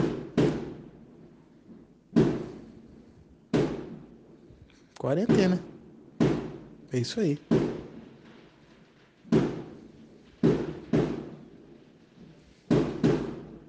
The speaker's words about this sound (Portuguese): Justo na hora que eu ia falar, aí começou a explodir fogos de artifício no meio da minha rua. Aí, ó. Isso que dá morar em Limeira.